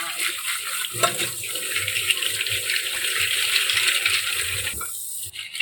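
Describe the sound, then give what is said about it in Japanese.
Tap water runs steadily in a continuous rushing hiss as boiled whelks (bai-gai), drained into a colander, are rinsed beneath it, with faint clatters of the shells shifting in the colander, stopping abruptly near the end. “そして、えー、バイ貝の方がですね、沸騰しましたので、こちらをざるにあげます。そして、お水ですね、ざっと洗ってください。”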